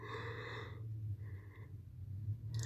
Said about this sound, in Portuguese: Ai, menos pro bochejo. Bochejo? Bocejo.